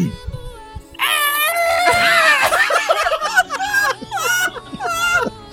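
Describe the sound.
A person imitates Godzilla's roar, a loud, drawn-out, high-pitched screeching wail that bends in pitch, followed by several shorter wavering vocal cries.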